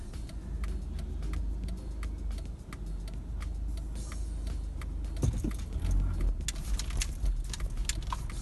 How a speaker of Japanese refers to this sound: 事故のないように安全運転でいきたいと思います